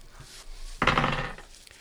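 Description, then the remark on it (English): A short burst of hard clattering as percentile dice are rolled for a 1d100 in a tabletop game, tumbling across a tabletop with a bright rattling that fades within about half a second, landing on 51, with no talking. “So roll me a percentile dice.”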